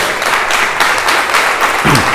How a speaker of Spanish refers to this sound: Amén, le podemos dar un fuerte aplauso al Espíritu Santo.